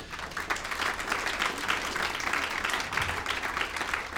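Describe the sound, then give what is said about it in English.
A church audience claps for God together in a steady, dense burst of applause that holds at an even level for several seconds, many hands blending into a continuous crackling wash. “Come on, if you believe that, give God a big clap.”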